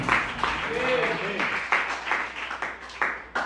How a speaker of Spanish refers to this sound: Denle fuerte el aplauso al bendito que vive para siempre.